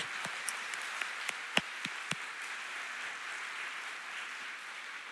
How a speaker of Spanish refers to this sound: ¿Cuántos quieren eso? Oh, los que lo quieren, denle un aplauso así bien poderoso al Señor.